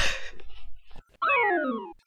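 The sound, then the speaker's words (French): A single drawn-out cat meow with a falling pitch, loud, follows a second of soft rustling and shuffling noises. “L'attaque du chat”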